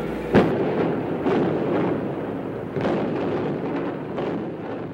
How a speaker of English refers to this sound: Today is demolition day at the Pruitt Igoe. Door Wrecking Company will explode the supporting columns from an 11 story vacant high rise.